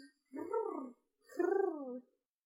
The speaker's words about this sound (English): Pigeons. Pigeons.